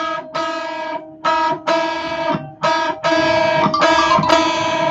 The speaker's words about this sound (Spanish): ¿Escuchan esta segunda menor? Estoy tocando mi bemol y mi natural. Es una disonancia bastante fea.